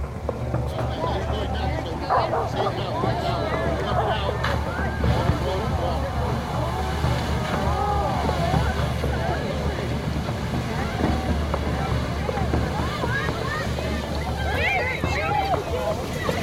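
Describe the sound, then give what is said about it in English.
The upstream section of the 200-year-old masonry arch Tadcaster Bridge collapses into the flood-swollen River Wharfe in Tadcaster, Yorkshire, England, after intense rainfall: a steady, loud low rumble and rushing water throughout, with wind buffeting the microphone and voices murmuring underneath. “This is the sound of the Tadcaster Bridge collapsing into the River Wharfe.”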